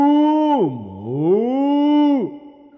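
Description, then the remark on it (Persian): A voice imitates a cow's moo with one long, loud, drawn-out call that swoops low in pitch and then rises again, steady, with no other sounds around it. “مو مو مو مو آفرین آفرین بر این پیامبر گاو”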